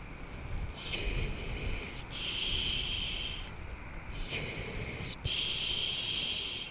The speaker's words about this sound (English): Darkness came swiftly, and with it came a sinister hissing sound from the forest.